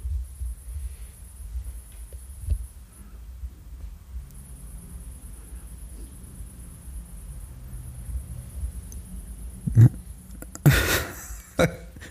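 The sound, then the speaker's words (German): A thin, steady high-pitched trill of crickets runs faintly through the background, pausing briefly once, over a low rumble, with a few sharp knocks and thumps near the end. “Ja, ja, das sind Grillen.”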